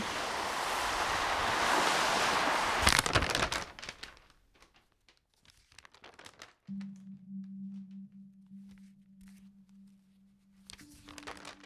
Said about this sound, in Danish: Der er 15 grader, og bare kun en svag vind gør lyder og mærke på vandet.